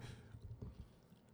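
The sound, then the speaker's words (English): Someone chews crunchy potato chips: a quick series of soft, rhythmic crunches and muffled jaw thumps, fairly quiet, with no talking. “No, you can't. They're chips. They're crunchy.”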